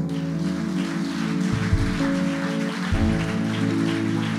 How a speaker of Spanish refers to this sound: Wow, denle el aplauso.